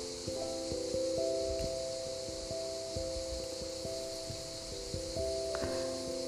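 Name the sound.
wind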